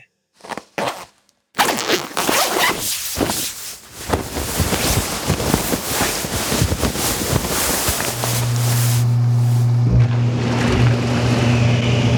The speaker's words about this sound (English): I'm glad I kept my swim trunks on, just in case the jacuzzi timer runs out and the bubbles go off.